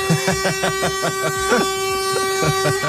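A car horn sounds steadily, with loud, rapid, rhythmic honks pulsing over the sustained tone for about three seconds.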